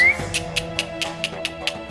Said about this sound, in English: The attendants whistled and clicked their tongues for the camels to rise.